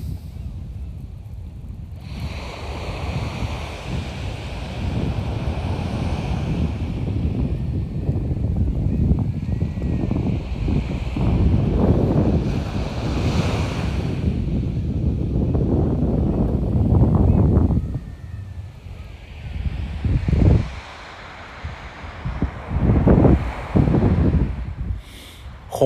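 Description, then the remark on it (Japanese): Ocean waves at Rikuzentakata, Japan, wash against the shore in a steady, rumbling roar that swells and recedes several times. Gusty wind buffets the microphone and no one is talking. “これが陸前高田の波の音です”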